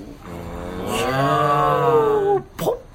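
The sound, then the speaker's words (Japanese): A pig sound effect, played by pressing a button, plays alone: one long, drawn-out, groaning call that slowly sinks in pitch, followed by a brief snort-like burst, loud. “あ今豚が今反抗しました、あれよく押したなよく押されたな豚が今反抗しました”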